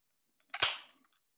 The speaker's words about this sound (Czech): Otevírám si pivo.